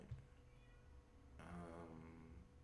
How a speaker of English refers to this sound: the Mr. Cat outside? No, that's a different cat.